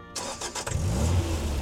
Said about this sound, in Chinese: 猴子警长发动了越野车，准备前往下一个异常点。